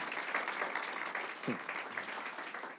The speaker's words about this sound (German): Er hat, genau, geben wir ihm einen ordentlichen Applaus.